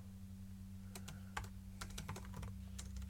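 Rapid, uneven keystrokes on a computer keyboard with a small enter key while writing program code, a series of sharp clicks in quick bursts over a steady low electrical hum, with no voices.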